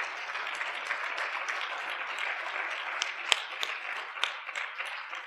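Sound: audience applause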